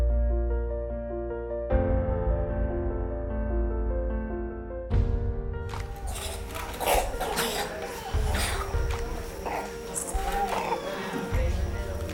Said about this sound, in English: You hear them coughing? Can you hear that deep chest cough? Because the resistance is so low that the least little thing becomes a serious life or death issue for these children.